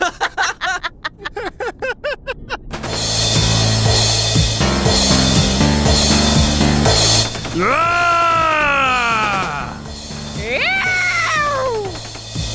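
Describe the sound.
After a quick burst of laughter, a man belts out two drawn-out, wavering screams in a mock cowboy drawl, loud over steady background music.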